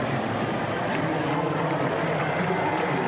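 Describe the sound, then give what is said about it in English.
An audience of military members claps steadily, a dense, even wash of many hands that holds at the same fairly loud level throughout, with a faint murmur of crowd voices mixed underneath. “Okay, so they got the military folks audible clapping.”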